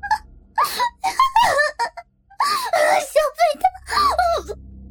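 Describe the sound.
A woman wails and sobs loudly in long, wavering cries, her voice rising and falling in pitch with short gasping breaks between bursts.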